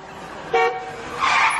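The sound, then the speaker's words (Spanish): A car horn honks in a short, loud blast, followed moments later by a second brighter honk, set against a steady background of traffic noise. “¡Mueve tu auto! ¿Cuál es tu problema?”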